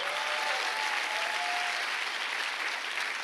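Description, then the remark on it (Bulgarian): Steady, sustained applause from a crowd, a dense wash of clapping at an even level throughout, with a faint tonal whistle briefly audible early on and no talking. “О, ако ръкопляскаш, ръкопляскай, че наистина вярваш.”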